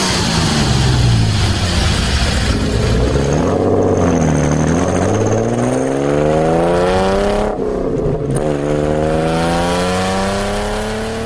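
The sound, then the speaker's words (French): A car engine runs loudly, its pitch rising and falling as it revs up and shifts through gears, with no voices over it. “Imaginez-vous au volant de la voiture dont vous venez d'entendre le son du moteur.”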